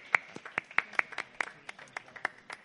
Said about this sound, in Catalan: Actualment, un aplaudiment. Gràcies.